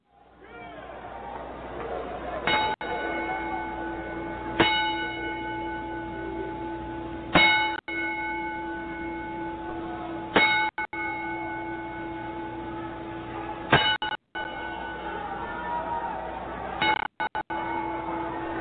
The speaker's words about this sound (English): Um, everyone probably knows by now that Dynamite Props, his manager, passed away. So, in his honor, we're going to take a 10 bell salute and then a moment of silence.